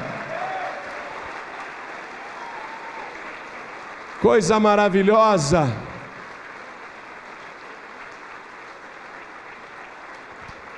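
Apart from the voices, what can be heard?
church audience applauding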